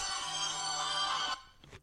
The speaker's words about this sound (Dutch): Sorry, dat was de telefoon.